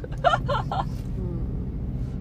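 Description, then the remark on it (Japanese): A car engine hums steadily, a low continuous rumble heard from inside the vehicle, with a brief burst of voice near the start before the drone carries on alone. “ちょっとこの車のエンジンの音ってどう入ってんだろうね結構うるさかったりしてそうね”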